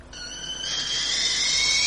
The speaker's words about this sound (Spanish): Eh, la tetera. Me ha estremecido su sonido.